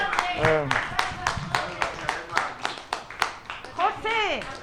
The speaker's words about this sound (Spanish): un gran aplauso, ¿eh? Un gran aplauso.